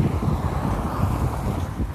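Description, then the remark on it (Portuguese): Strong wind buffets the microphone on a warm day with many clouds and blue sky, while walking along a street, in a constant, loud low rumble with gusty fluctuations, with no voices heard. “E agora é uma ventão já.”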